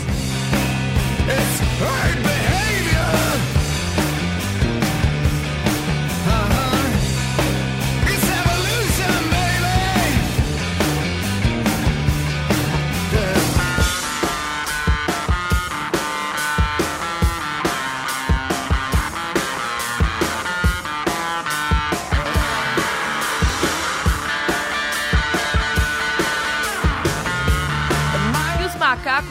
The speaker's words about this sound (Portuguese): Um diferencial dessa música é que a voz apresenta mais distorção do que as guitarras.